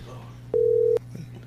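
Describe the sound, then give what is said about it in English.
A single steady electronic ringing tone of an outgoing phone call to a woman sounds for about half a second, loud, over a faint low background hum. “Why we calling her?”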